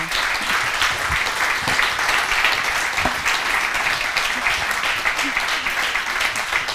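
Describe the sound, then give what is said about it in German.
A large audience claps steadily and continuously to welcome a guest, the winner of the 2017 Landfrauenküche cooking competition, a dense, even wash of applause that holds at a strong level for the whole stretch without pausing or fading. “So, begrüßen doch auch Sie mit einem großen Applaus”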